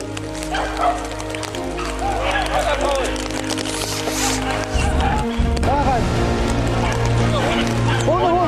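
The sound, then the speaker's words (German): Hunting dogs chasing a wounded game animal bark and yelp excitedly in rapid, overlapping bursts throughout, over a steady low rumble in the background. “Die fangen die Hunde gleich wieder.”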